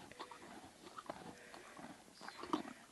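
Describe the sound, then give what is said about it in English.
An animal named Fred chews a carrot at Early Bird Acres, with a string of crisp, irregular crunches and wet chomping. No one speaks over the quiet, steady chewing. “Gosh, I love that crunch. That crunch noise is so satisfying.”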